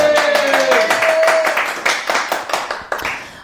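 Loud, dense clapping from several hands, a rapid crackling burst of applause that thins out slightly toward the end, with a brief high tone near the start.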